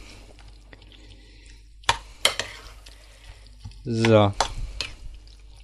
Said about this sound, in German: und jetzt tue ich ein, zwei, Spritzer rein. Rühr kräftig um.